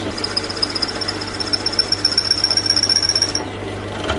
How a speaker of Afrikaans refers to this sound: Dis beter om maar 'n entjie te boor, jou boor te lig en dan van die saagsels wat op die boorpunt sit ontslae raak en op die manier kry jy 'n gat wat baie mooi parallel geboor is.